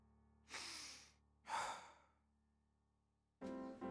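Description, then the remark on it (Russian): Two breathy, airy inhales into the microphone, about a second apart, followed after a pause by the start of a voice. “И э, буду стараться контролировать этот процесс на протяжении подкаста, иначе вот как сейчас будет слышен вдох и так далее, но я думаю, это не будет сбивать.”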